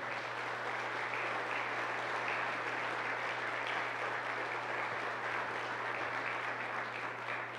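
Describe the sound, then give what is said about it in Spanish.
Sustained applause from an audience, given to the Lord after a prayer, a dense, steady wash of many hands clapping at once for several seconds with no break, loud and even throughout, with a low steady hum underneath. “de un aplauso al Señor.”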